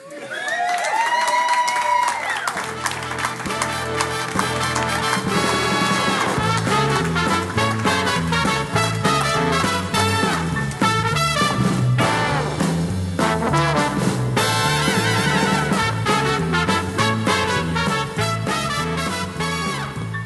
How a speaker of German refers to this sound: Ladies and Gentlemen, darf ich euch einladen, ihn mit einem tobenden Applaus zu begrüßen, den Mann, der im normalen Leben nicht etwa Bruce Wayne heißt,